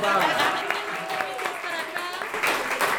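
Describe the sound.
A crowd applauds steadily for about three seconds, a dense wash of many hands clapping at once, with voices cheering and calling out over it.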